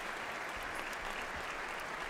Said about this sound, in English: People clapping for her, of course. No announcement, of course, just traditionally, but uh, she is walking in, and uh, everyone seems to be standing up and clapping for her for probably an array of reasons, I would assume.